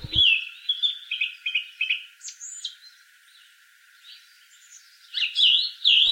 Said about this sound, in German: Und deshalb ist der Vogel der Woche der Frühlingsankünder schlechthin, die Singdrossel.